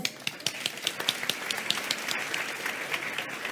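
A room full of people applauds, dense overlapping hand claps with sharp individual pops on top, steady and lively throughout without any talking.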